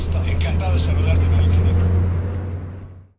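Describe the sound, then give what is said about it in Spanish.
A truck engine is started and runs with a steady, deep rumbling drone and a faint higher whine, holding loud and even for about three seconds before trailing off at the end. “Llegué, abordé mi unidad y la puse en marcha.”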